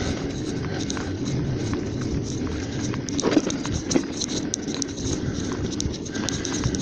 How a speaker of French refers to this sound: Le gros bruit que vous entendez, c'est mon antivol qui bouge dans, à l'avant du bullet.